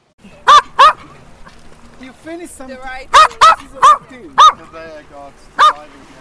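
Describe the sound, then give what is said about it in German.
A small female Maltese dog barks in sharp, high-pitched yaps, a quick pair first, then a burst of several more after a pause, with faint voices or whining in the background between barks. “Die Malteser-Hündin”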